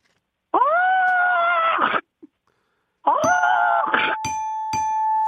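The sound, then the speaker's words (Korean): A voice imitates a crow choking on a crucian carp bone stuck in its throat: two long, strained, nasal cries separated by a short pause, the second trailing into a thin sustained tone with a few sharp clicks. “까마귀가 붕어 먹고 목에 가시 걸린 소리입니다.”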